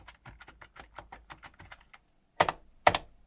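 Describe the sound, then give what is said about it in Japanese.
Quick, steady keystrokes clatter on a computer keyboard with a strong pressing feel and a snappy rebound, pause briefly, then come two much louder, heavier key presses struck firmly one after the other. “確かにその、僕 MacBook 使ってるけど、MacBook もなんか歴代で、あの時代のキーボードが良かったからなとかっていう人いますよね。使ってるけど、それよりは、なんだろうな、押してる感がすごい強いって感じですかね。”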